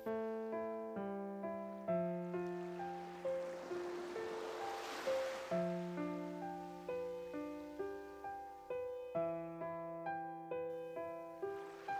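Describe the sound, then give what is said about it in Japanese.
A single soft ocean wave swells and washes onto a sandy beach midway, mixed beneath calm, sustained music chords that play steadily throughout. “あなたが息を吸うとき、ゆったりと波が打ち寄せ、あなたが息を吐くとき静かに波が引いていきます”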